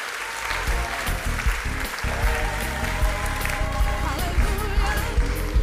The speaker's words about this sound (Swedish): Och så vill vi såklart tacka alla konfirmander som har liksom gjort innehåll till den här produktionen med filmer, med manus och med bilder och med massa idéer. Ge dem en varm applåd.